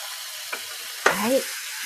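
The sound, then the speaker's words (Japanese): A steady frying sizzle hisses throughout, with a brief clatter and then a louder burst of crackling as soy sauce is poured into the hot frying pan, settling back into the sizzle. “はい、それではちょっと醤油を入れますので、ちょっと音がうるさくなるかもしれません。”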